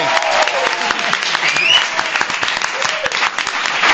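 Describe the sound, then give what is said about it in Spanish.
Sustained applause from a group for the winner of a game programme, dense rapid clapping that fills the whole stretch at a steady, fairly loud level, with a few voices mixed in. “Un aplauso ¡Oh!”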